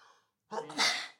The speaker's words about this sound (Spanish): Ay que estornudar, disculpen.